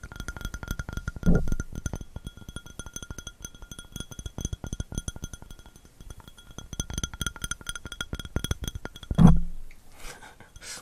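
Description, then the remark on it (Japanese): Rapid, sharp clicking of fingernails tapping on a hard surface, a dense irregular patter of crisp clicks with a couple of duller bumps mixed in, ending in a brief rustle from a hand brushing the microphone's windjammer. “これはネイルタッピングですね。”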